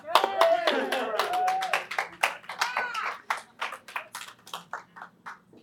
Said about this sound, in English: That was a golf clap, but that's okay.